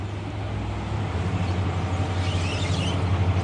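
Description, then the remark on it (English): A big Caterpillar V8 diesel fishing boat engine running, a steady, deep throbbing rumble with a pulsing beat that holds unchanged for the whole stretch, with no voices over it. “The sound of the powerful diesel engines.”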